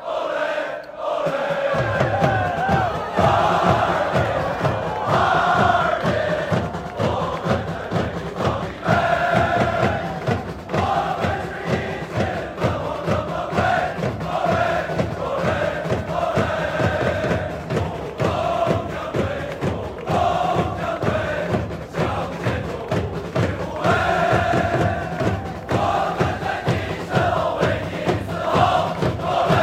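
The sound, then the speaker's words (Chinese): A loud football crowd roars and chants together in a steady rhythmic pulse, the massed voices sustained for about half a minute after a brief quiet opening. “我们在你身后为你嘶吼。”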